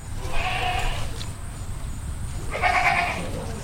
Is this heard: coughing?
no